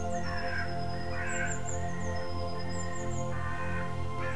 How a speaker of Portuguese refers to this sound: passarinhos que cantam e voam tão próximos que você pode tocá-los.